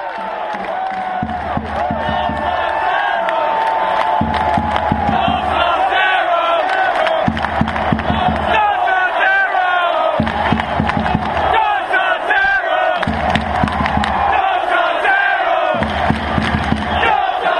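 A huge stadium crowd of football fans sings a chant together, many voices in melody over a steady, pounding drum-like beat, loud and continuous throughout with no single voice standing out.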